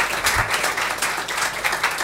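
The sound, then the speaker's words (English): A live audience applauds steadily for a performer after his set, many hands clapping in a dense, continuous patter that stays fairly loud and even across the whole moment, with no voices rising above it. “Big round of applause for Aaron, everyone.”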